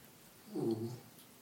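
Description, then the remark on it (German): A dog lets out a single soft sigh, a brief low groaning exhale of about half a second, quiet, with no one talking. “Da seufzt dein Hund.”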